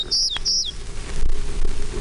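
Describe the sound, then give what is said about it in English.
A Townsend's warbler gives two short, high, buzzy notes in quick succession, fairly clear against a low rumble of wind or outdoor background noise. “Townsend's Warbler.”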